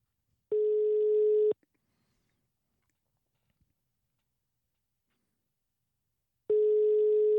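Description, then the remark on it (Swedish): A telephone ringback tone, heard while dialing a man's phone number, sounds as a steady electronic hum: one long ring of about a second, then a long silence before the next ring begins. Clear, with no talking. “Ja, jag ska se här om jag får lyckas få till hans telefonnummer.”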